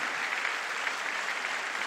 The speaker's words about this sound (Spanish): Alguien tiene que aplaudir más que eso.